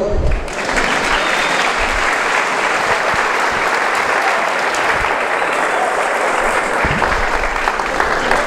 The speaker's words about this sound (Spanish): Vamos a ponernos de pie un momento y le damos un aplauso al Señor.